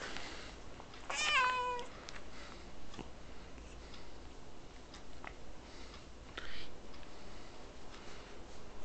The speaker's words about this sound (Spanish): Ven acá. Está mi gata.